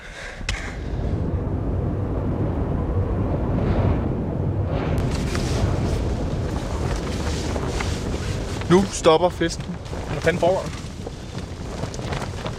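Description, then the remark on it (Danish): Strong wind gusts roar and buffet a tent at the last mountain camp before the summit while it snows, a continuous loud rumbling and flapping, with people speaking briefly over the noise. “Blæser sat meget. Teltet står og rusker. Det sner.”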